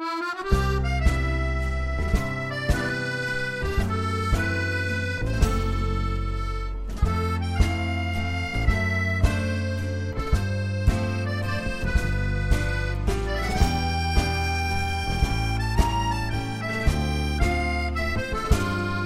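A Korean pop song plays steadily from start to finish, with a regular beat, a full bass line and layered melodic instruments, loud with no talking over it.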